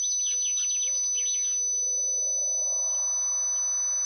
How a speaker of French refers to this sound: le sifflement, accompagné d'un léger vent de nord